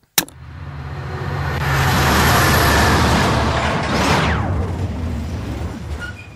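A heavy freight train rumbles past, a loud, broad roar that swells to a peak and then gradually fades with a sweeping pass-by tone, with no voices.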